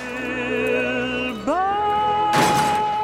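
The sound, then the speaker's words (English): A long note sung by Frank Patterson for a film score slides up to a higher pitch, then a car crashes into a tree in a short, loud burst of smashing and shattering while the sung note sustains underneath. “He really got into it, and we'd say, "Okay, can you hold that note until the car hits the tree?"”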